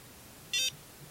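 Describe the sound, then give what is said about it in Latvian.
A single short electronic beep, high-pitched and steady, lasting a fraction of a second from a facial skincare device held on the face in a bathroom, standing out clearly over faint low background noise with no talking. “Labi, tad es slēdzu iekšā to aparātu. Un, un tad es viņu tā kā tur uz sejas un gaidu, kamēr tur ir kaut kāds signāls.”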